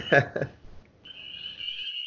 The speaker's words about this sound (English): Yeah, let me know when you hear them peeper frogs, man. We know spring will be around here for too long. Yep. There they are again.